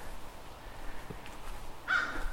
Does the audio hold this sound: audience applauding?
no